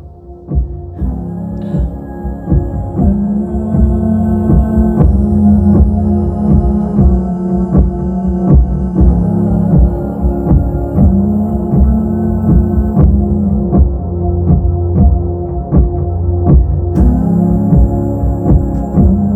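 Live concert music plays steadily, with a looping bowed violin line over a deep, throbbing low-end pulse and regular percussive beats, loud and continuous with no talking.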